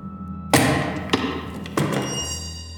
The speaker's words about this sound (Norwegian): Plutselig blei inspeksjonsluka i døra åpna, og et par øyne glodde på meg. Så smalt den igjen, og døra åpna seg.